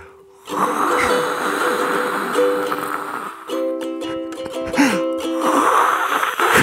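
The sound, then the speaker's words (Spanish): A voice imitates ocean waves with a long, breathy whooshing that swells and recedes, sometimes mixed with hummed or whistled tones, fairly loud for several seconds. “Tú recrea las olas del mar.”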